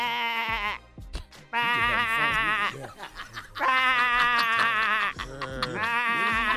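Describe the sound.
A person imitates a sheep with four loud, wavering bleats, clear and separated by short pauses with faint background noise between them.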